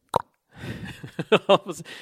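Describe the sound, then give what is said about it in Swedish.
A single quick mouth pop imitates the sound of a fist bump, then a brief pause before someone breaks into laughter. “Nu gjorde vi en fistbump, ni hörde inte men jag kan göra så här lät det.”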